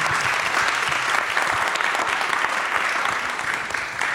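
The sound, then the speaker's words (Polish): People clap steadily for a magazine's editor-in-chief, a dense, sustained wash of applause that holds its level for a few seconds with no voices standing out. “Magdalena Kicińska, wielkie brawa dla niej, redaktorka naczelna pisma”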